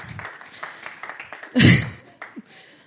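A short burst of audience applause for two people called up on stage, a dense, crackling wash of many hands clapping, with a sudden louder swell in the middle before it thins out again.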